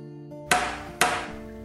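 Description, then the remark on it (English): Two loud, sharp metallic knocks from a door knocker, half a second apart, each ringing briefly before fading, over a low steady hum. “Less than 40 minutes later, the door knocker shocks us out of conversation again.”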